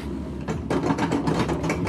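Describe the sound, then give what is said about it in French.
A steady mechanical clatter with a rapid rhythmic pulse: the lift mechanism of a log flume ride hauling the car up a small hill, running continuously at moderate loudness with a low rumble underneath. “Donc là le bruit que vous entendez c'est le mécanisme qui permet au wagon de monter trop haut à mon goût, euh, de monter sur une espèce de petite colline.”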